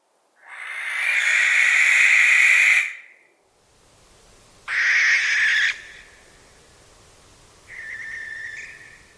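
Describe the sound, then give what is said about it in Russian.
Three harsh, hissing screeches from a barn owl, the first long and loud, the next two shorter and fainter, separated by brief pauses against quiet background. “И это сова, которая совершенно не угукает, не говорит уху, а это сова, которая, как из названия понятно, она сипит. Она как-то скрежещет, у нее какой-то совершенно безумный звук, вот послушайте.”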